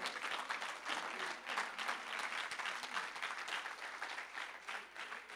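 An audience at a religious service applauds the Lord steadily, a dense wash of many hands clapping at a fairly even level for several seconds, with no voices rising above it.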